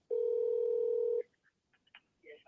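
A telephone call being dialed to the United States Navy: a loud, steady mid-pitched electronic tone holds for about a second, then cuts off into a few faint, brief blips and clicks. No one speaks.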